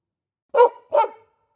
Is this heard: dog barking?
yes